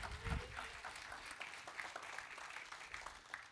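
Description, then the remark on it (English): A crowd claps steadily in praise of the Lord one morning, a dense patter of many hands spread evenly, with a low thump near the start and faint voices mixed in underneath. “Put your hands together and give the Lord praise this morning.”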